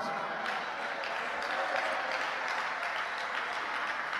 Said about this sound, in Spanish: Dele palmas, palmas, palmas para ti.